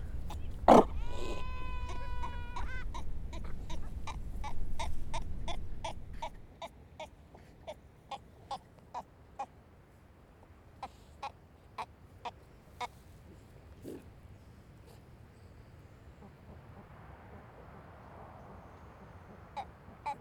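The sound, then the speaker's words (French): Sea lions call from a colony hidden in grass near the sea, by a beach with huge rocks and breaking waves: a wavering, bleating cry over a low rumble, followed by a long run of short, evenly spaced barks that thin out and fade. “Après c'est euh, de l'herbe, beaucoup d'herbe avec plein d'otaries cachés euh, à droite à gauche qui se confondent avec les”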